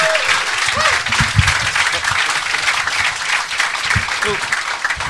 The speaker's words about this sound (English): Uh, so, uh, give a massive round of applause to Paul Foot, ladies and gentlemen.